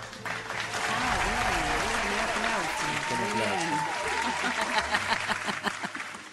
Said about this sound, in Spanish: Fuerte el aplauso.